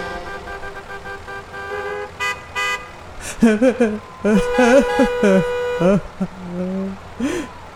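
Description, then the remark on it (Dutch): A voice mimics driving a car to work, with a steady engine hum followed by a burst of wavering honks and toots, loud, with no actual words spoken. “Met de auto naar het werk, be like.”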